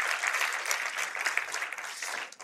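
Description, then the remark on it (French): An audience applauds God during a French-language sermon, a dense wash of many hands clapping at an even, sustained level before easing off slightly at the end. “Est-ce qu'on peut applaudir notre Dieu qui est présent et qui nous donne d'être patient en sa présence?”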